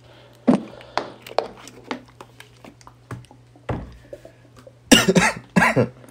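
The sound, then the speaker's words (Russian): A person coughs repeatedly to clear their throat, a few scattered hacks followed by a louder burst of harsh coughing near the end, with a low hum underneath. “Погоди, сейчас, пока не рассказывай, я, я откашляюсь и просто терпел все это время.”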